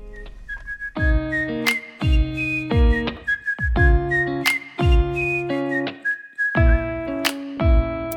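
A pop song's intro: a bright whistled melody floats over bouncy, evenly spaced chord hits and a steady beat, with no singing yet.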